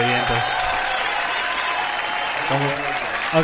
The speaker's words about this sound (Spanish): en vez de que ponga el, efecto, se empezó a aplaudir. Eso está muy triste.